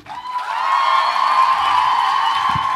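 A crowd cheers and applauds in a loud, steady roar that swells quickly after a brief start and holds for nearly three seconds, with no talking on top.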